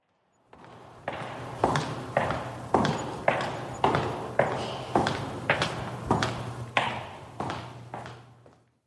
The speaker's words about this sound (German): das sind Schritte offenbar mit Schuhen mit Ledersohlen, die hallen ganz ordentlich.